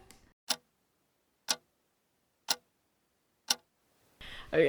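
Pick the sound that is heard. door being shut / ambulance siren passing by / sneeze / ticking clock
ticking clock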